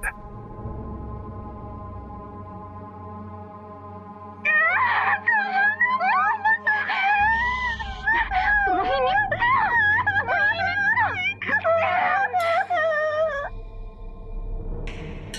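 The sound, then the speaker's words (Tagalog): A girl of under eight cries and wails in pain while a woman pulls at her body as she lies on a bed, long quavering sobs rising and falling for several seconds, loud over a steady low droning background. “Umiiyak ang bata sa sakit.”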